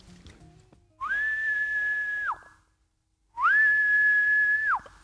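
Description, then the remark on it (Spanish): Two loud, sustained whistled signal calls, each sliding up into a long steady note and dropping off at the end, separated by a short pause, with no talking. A man's signal whistle used to announce that he was arriving. “Esa era la clave que venía él, por el pasillo y se escuchaba la moto más ese silbido, ¿no?”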